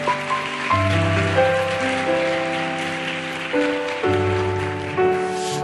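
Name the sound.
audience applause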